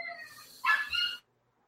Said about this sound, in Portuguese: Opa, tem um cachorro aí que tá tem, tem. É. tem a minha, minha, Noite Maria, minha cachorrinha aqui.